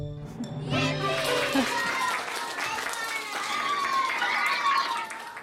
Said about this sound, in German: Dein Beifall